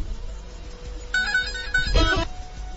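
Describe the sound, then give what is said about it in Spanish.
A mobile phone ringtone chirps out a short melodic burst of bright electronic tones, fairly loud, lasting about a second before cutting off, with no talking over it. “¿Por qué tienes ese tan pendejo tu teléfono? Está ¿Vas noche cuando suena?”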